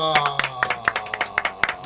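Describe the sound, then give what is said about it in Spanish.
A short round of applause on the radio show Efecto Doppler in Neuquén, welcoming the week's guest artist: a dozen or so sharp hand claps at a quick, fairly steady rhythm, moderately loud, with a sustained tonal sound running underneath. “aplauso”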